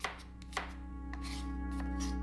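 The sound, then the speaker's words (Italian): Knife chopping vegetables on a cutting board: a few sharp, irregular thuds and clicks over a steady low hum, with no voices present. “Ma la prima cosa che sto pensando in questo momento, mentre il rumore dell'affettare le verdure prosegue, è prendere questo martello e piantarglielo nella schiena e uscire da questa casa col ragazzo.”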